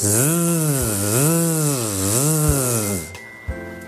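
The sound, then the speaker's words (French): In a voice exercise, a voice imitates a big buzzing mosquito with a loud, continuous "zzz", a mix of S and Z, whose pitch swoops up and down in waves for about three seconds, then stops abruptly. “Alors c'est pas un petit moustique, hein, c'est pas euh, c'est et on va faire comme ça trois fois ce moustique.”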